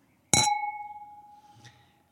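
Wine glasses clink together once in a toast with 12 Linajes, a 2017 Ribera del Duero tempranillo crianza wine, a bright sharp chime whose clear ringing tone lingers and slowly fades, followed by a faint soft tap. No one speaks.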